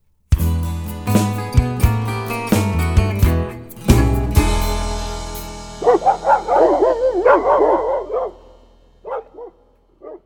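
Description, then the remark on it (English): Old hound dogs chasing something bark and bay in a rising, overlapping chorus of drawn-out, howling calls, starting about halfway through after several loud strummed chords, then trailing off into a few scattered yelps. “I can hear those old hound dogs barking, chasing down a hoodoo there.”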